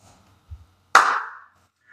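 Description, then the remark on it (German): A single sharp hand clap, made to sync a recording, rings out after a soft low thump, its bright burst trailing off in a short echoing decay, with no talking during it. “Und jetzt klatscht ich mal.”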